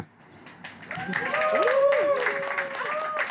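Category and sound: crowd, audience applause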